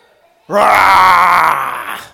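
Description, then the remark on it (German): A child imitates a lion's roar with one loud, sustained, strained vocal cry that starts low, rises in pitch, holds for over a second and a half, then fades slightly. No speech accompanies it. “Wer traut sich wie ein Löwe zu brüllen?”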